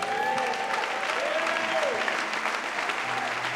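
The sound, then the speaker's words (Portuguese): An audience applauds the Lord steadily, a dense wash of clapping at even loudness throughout, with faint vocal tones and cheers rising and falling over it. “Pode aplaudir o Senhor.”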